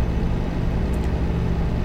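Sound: truck engine running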